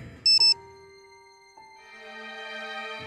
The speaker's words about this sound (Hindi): बड़ी कंपनियों में काम करने वालों के लिए तो ऐसे ऐसे फोन बन गए हैं जिनमें ईमेल आता है और हर ईमेल के आने पे एक आवाज होती है